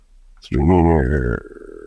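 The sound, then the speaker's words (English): A voice makes a single low, creaky, drawn-out groan that wavers in pitch for about a second, loud, imitating a submarine heard underwater, which sounds like a creaking hinge. “And a, and a sub sounds much more like a sort of creaking hinge.”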